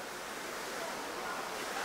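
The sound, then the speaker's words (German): Steady, dense rain hisses without a break, a broad wash of noise with no distinct drops or pauses and no voices over it. “Nicht auf den Regen achten, sondern hier bleiben.”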